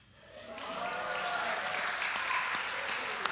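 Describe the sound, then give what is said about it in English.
A crowd breaks into applause for the speaker's wife on their 23rd wedding anniversary, swelling quickly from quiet into a steady, dense wash of many hands clapping together, sustained at an even loudness throughout. “Clap for her.”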